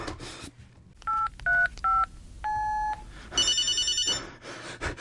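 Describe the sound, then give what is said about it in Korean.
Three quick phone keypad tones beep in succession, followed by a slightly longer tone, then a bright trilling ring, as someone dials the emergency number 119 on a phone. Clear, with no talking. “전화, 전화 어딨어? 119.”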